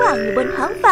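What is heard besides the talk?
frog croaking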